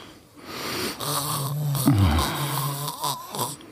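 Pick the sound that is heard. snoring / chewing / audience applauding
snoring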